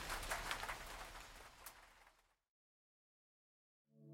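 Steady rain pattering on a tin roof, a dense bright hiss that fades out after about two seconds, followed by silence and then a faint tonal sound starting at the end.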